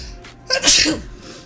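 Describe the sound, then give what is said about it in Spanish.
A single loud sneeze bursts out sharply and fades within about half a second, with no talking around it. “Perdón. Salud.”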